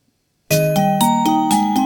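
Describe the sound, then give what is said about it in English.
A loud electronic computer alarm tone, set for 19:36, starts abruptly after a brief silence, repeating bright, chiming beeps in a steady rhythm about every quarter second, piercing, with no one talking. “If I press Alt Control Windows F8, 47 seconds. We've got 47 seconds remaining.”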